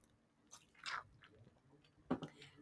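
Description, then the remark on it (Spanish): Two short, wet slurping sips of mate through a straw at 9 in the morning, fairly quiet, separated by a second of near silence, with no talking. “Perdonen, chicos, ruido de mate.”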